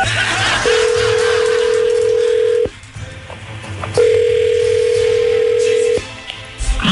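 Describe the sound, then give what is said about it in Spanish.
A telephone dial tone as a call is placed to someone's daughter: two steady, mid-pitched electronic tones, each about two seconds long with a short pause between, sounding over a low background hiss with no talking. “Eh, esos son los detalles que tengo, entonces vamos a marcarle a tu hija”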